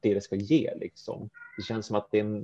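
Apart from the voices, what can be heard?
cat meowing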